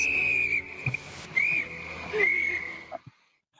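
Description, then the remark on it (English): A shrill, steady rape-whistle blast, used as a sound effect, held for about three seconds, wavering slightly in pitch with a few brief spikes before it cuts off into near silence. “the the the rape the rape whistle buddy bet of the week was Alex Noren.”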